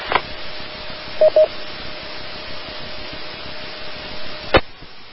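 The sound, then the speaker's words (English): Two quick DTMF touch-tone beeps, sent from a radio microphone, come through a radio channel, surrounded by steady hiss and static, with sharp squelch bursts near the start and end. “Uh, yeah, I believe one way you could probably do that is uh, using the DTMF uh, tones on uh, on your mic if they're still functioning.”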